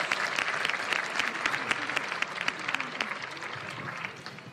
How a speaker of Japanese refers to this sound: さあではここからはですね秋葉忠宏監督にも加わっていただき各選手の特徴などなど伺っていきたいと思います皆さん大きな拍手でお迎えください